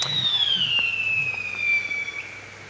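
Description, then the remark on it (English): A single firework goes off around one o'clock in the afternoon. It whistles loudly, a piercing tone sliding steadily downward for about two seconds, with faint crackles and a low rumble of background noise beneath it. “Why would anyone be doing fireworks at one o'clock in the afternoon?”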